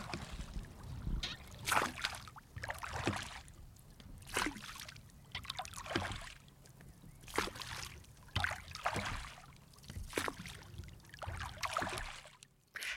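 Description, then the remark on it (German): Oars dip and pull through the calm water of a lake in a steady rhythm as a boat is rowed by muscle power, without a motor, toward the other side of the lake, each stroke bringing a splash and swirl, with water trickling and sloshing between pulls. “Wir sind nämlich nur mit Muskelkraft unterwegs und nicht mit einem kleinen Motor.”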